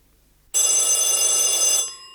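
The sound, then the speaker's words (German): A loud telephone bell rings in one sustained burst of bright metallic jangling lasting over a second, then cuts off, leaving a fading shimmer of tones. “Eine schier endlose Zeit schien zu vergehen, bis das Telefon erneut klingelte.”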